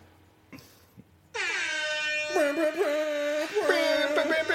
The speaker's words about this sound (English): oh, that air horn.